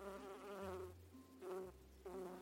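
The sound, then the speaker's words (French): Bees buzz steadily, a continuous droning hum that swells and wavers in pitch as they move around, with no voices over it. “Sais-tu que les chandelles sont faites à partir de la cire que fabriquent les abeilles”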